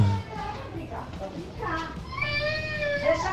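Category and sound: human body sound, young child crying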